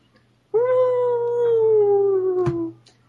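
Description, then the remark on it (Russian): A single long, loud wolf howl holds a steady tone and slowly sinks in pitch over a low constant hum, with a sharp click just before it fades out, as the howling wolves draw closer. “А, они становятся ближе, вот эти вот с волчевой.”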